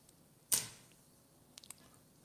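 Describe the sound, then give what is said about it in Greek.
Papers being rummaged through: a sharp crisp rustle of shuffled sheets, then a few faint light ticks and crinkles, fairly quiet, with no talking. “Τα ψάχνω τα μπουρδέλα μου και τα, τα χαρτιά εδώ και στο διάλογο τα βάλα.”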